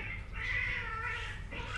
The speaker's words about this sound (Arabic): اوكي اوكي صكت هوشه برا بالقطاوه هوشه قطاوه برا الباب برا باب بيتنا